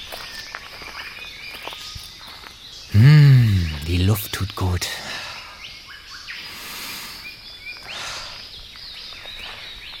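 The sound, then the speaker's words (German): A morning walk through rainforest: dense high insect buzzing and scattered bird chirps, a loud rising-and-falling call rings out briefly, footsteps shuffle, and a person murmurs a few words. “Wie wär's mit einem Morgenspaziergang durch den Regenwald?”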